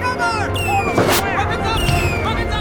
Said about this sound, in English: Stay where you are, you fools. It's fireworks. The bloody Guy Fawkes Day.